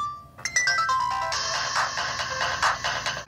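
A cheap mobile phone made in India plays a ringtone loudly, a quick run of shrill electronic beeps stepping through a tinny melody before turning into a harsh, buzzing chirp, with no one talking.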